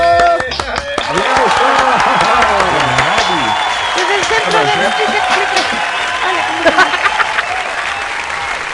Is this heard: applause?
yes